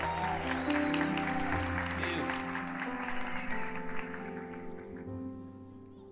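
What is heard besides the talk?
audience applause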